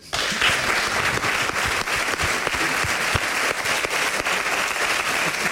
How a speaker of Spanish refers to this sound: que cuando te vea, pues que no solamente te vea, sino que este aplauso es para Luisa Ortega.